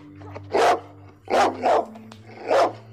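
dog barking

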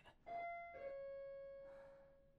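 intercom doorbell chime

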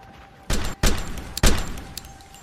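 burst of gunshots

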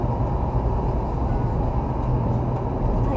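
engine noise

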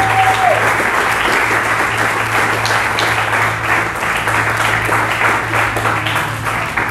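audience applauding loudly

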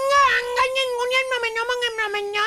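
cat meowing

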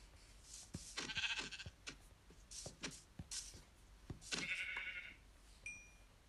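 video game sheep bleating

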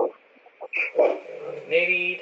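small dog barking

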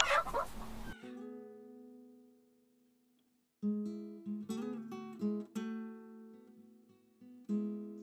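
chicken clucking

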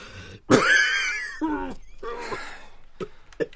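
coughing

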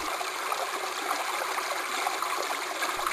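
river water flowing

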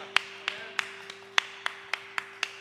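audience clapping

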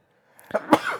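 sneeze

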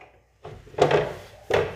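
window being closed

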